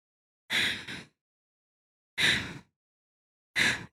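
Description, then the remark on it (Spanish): A voice mimics heavy panting, with three loud, breathy bursts spaced a second or more apart; the first is a quick double breath. No other sounds are present. “Era como si alguien estuviera respirando. Voy a tratar de hacer lo mismo, pero no sé si me salga.”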